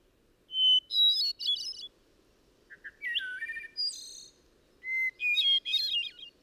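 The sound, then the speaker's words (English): Three separate phrases of a hermit thrush's song, each opening on a clear held whistle and breaking into rapid flute-like trills that climb higher, heard alone with soft background hiss and brief pauses between. “The song of the hermit is in a higher key”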